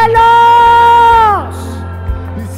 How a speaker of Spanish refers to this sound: Diga conmigo, levántate, iglesia, hoy ustedes se levantan en el nombre de Jesús. Que los guerreros del Señor hagan un grito de júbilo que se escuchen en los cielos.